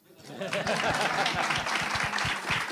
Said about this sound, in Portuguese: Palmas.